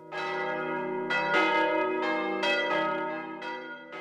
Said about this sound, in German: Glocken sind das mächtigste Mittel, um die Stadtgemeinde zu versammeln. Glocken rufen zum Gebet, zur Verteidigung, zum Löschen bei Bränden, zur Ratssitzung, zur Bekanntgabe neuer Verordnungen, zur Vollstreckung von Urteilen.